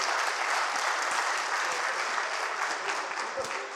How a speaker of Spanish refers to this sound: Ah, Un aplauso, lo hicieron muy bien, muy bien.